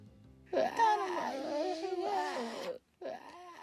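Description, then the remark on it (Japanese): A wailing, moaning scream from food at lunch just before it is eaten, in a wavering, human-like voice. It is sustained for about two seconds, then breaks off briefly before a second anguished cry starts up. No speech accompanies it. “食べる前のこの悲鳴がたまらないんだよな”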